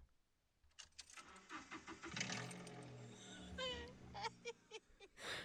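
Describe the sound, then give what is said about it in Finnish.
A Toyota Aygo small car engine with its muffling part missing is started: it cranks with a few sputtering bursts, then catches and revs roughly, loud and raw, with a whiny rising tone before it settles. “Ja tota, mulla on pienin pieni ääninäyte, miltä se kuulosti aina, kun mä starttasin tämän auton.”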